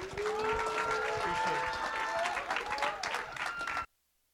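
A church audience applauds steadily for nearly four seconds to welcome the pastor who is about to preach, a dense wash of clapping with voices and sustained tones mixed in, then it cuts off abruptly into silence.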